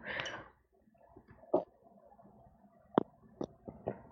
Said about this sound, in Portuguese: respira um pouco, uh, toma água, toma né? água, vou tomar aquele último golinho.